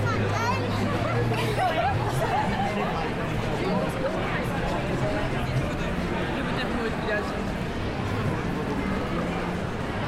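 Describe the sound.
A dense crowd of tourists, shoppers and families at the Christmas market in Covent Garden, London, chatters continuously, enjoying the festive lights and street performers; many overlapping voices form a steady, loud hubbub, with occasional brief footsteps or clatter beneath the babble.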